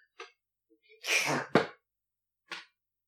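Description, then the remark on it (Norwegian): An attempted sneeze: a sharp breathy intake swells into a short, forceful burst of air, framed by quieter huffs of breath before and after, with no speech. “Å, jeg må nyse.”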